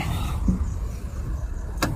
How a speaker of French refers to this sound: Regardez si j'ai fermé la voiture.